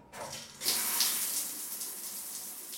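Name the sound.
shower water running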